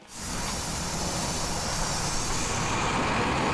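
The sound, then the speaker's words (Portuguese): A city bus lets out a loud, steady hiss of air brakes that kicks in abruptly and holds for several seconds over a low engine rumble, with no voices. “O, o motorista, é, esse ônibus aqui, ele passa no shopping?”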